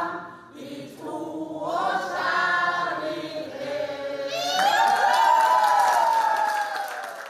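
A crowd at the No side's gathering in Sola, Rogaland, Norway, cheers and whoops loudly in the evening after over 80 percent of residents voted no to a municipal merger, with high excited voices and scattered clapping swelling into a sustained roar that peaks near the end.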